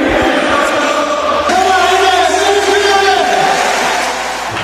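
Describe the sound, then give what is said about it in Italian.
A loud crowd of Roma football fans shouting and chanting together, a dense roar of many voices with sustained sung tones running through it, constant throughout. “Sentite che roba, urlatelo, cantatelo nelle case, nelle macchine, per strada.”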